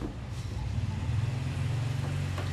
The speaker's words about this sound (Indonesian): ada motor lagi yang lewat mungkin lu dengar suaranya gue nggak tahu lu dengar apa enggak